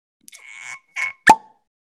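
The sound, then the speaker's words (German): A crisp pop of a beer bottle opening, preceded by a short scrape and hiss of the cap being worked loose, with no talking. “Schöne, schöne, schöne Plop, Alter, wirklich.”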